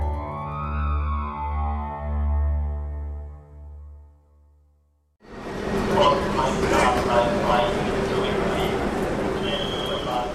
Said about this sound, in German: Ein großer Bahnhof in Deutschland. Es ist voll. Auf den Bahnsteigen drängen sich Menschen, Schulter an Schulter, mit Rucksäcken, Koffern, Taschen. Geschäftsleute, Senioren, Studenten, Reisegruppen, Familien. Sie alle warten auf ihre verspäteten Züge.